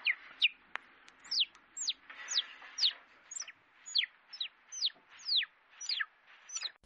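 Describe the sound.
A series of about a dozen quick, downward-sliding whistled chirps, imitating a bird call, repeating in a steady rhythm with faint background noise and no talking.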